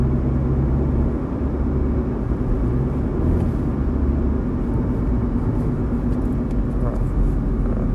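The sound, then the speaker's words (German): A steady, loud low rumble of road and engine noise inside a moving car, droning on evenly for the whole stretch with no breaks or distinct events. “Gerade im Auto noch, deswegen”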